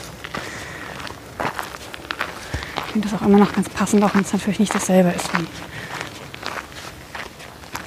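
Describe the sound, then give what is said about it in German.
Steady footsteps crunch along outdoors in an even walking rhythm as a man hikes on the way to Homberg, carrying a heavy load, while he talks over them for most of the stretch. “Heute ein bisschen schwer tragend. Und unterwegs auf dem Weg nach Homberg.”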